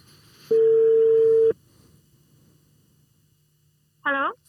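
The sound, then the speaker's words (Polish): A telephone ringing tone on a call to a barista in Barcelona: one loud, steady mid-pitched beep lasting about a second, then a long quiet pause with faint hum, before a short burst of a voice right at the end. “To świetna okazja, aby do niej zadzwonić i zapytać, jak wygląda praca baristy w Barcelonie.”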